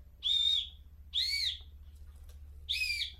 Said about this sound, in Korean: 만화 속에 나오는 소리 있죠. 네, 슬라이드 휘슬이라고 해서 휘슬도 그냥 불면